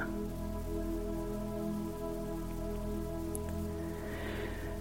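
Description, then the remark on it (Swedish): Steady rain falls in a constant, even wash of noise, with a low continuous hum underneath and no one speaking, used as a sound for relaxation and meditation. It stays at a moderate, unchanging level throughout. “Vi kan använda olika verktyg och tekniker för att slappna av och lugna oss. Och regn är en fin sån.”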